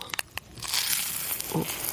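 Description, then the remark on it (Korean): Crunching of a crispy snack being chewed. The snack is crispy but not like a Western-style confection, and somewhat sticky and chewy. A few sharp crackles come first, then a steady, dense crackling crunch that carries on to the end with no talking. “이게 바삭한데 그 양과자 같지는 않고 음.”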